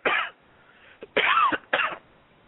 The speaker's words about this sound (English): excuse me. I'm sorry. I'm coughing in your guys' ears.